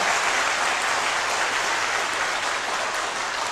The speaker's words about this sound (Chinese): 而二零零八年震撼世界的奥运会，唯一的指定皮具供货商是我们的奥康，报以掌声好吗？